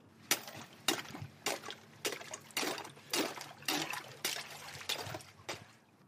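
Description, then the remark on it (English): Freezing pond water is scooped and sloshed repeatedly into a cup to catch algae, with about nine quick splashing bursts in a steady rhythm and no talking. “We have we have a cup of freezing cold water with I can see a few little bits of salt and silt and things floating around in there.”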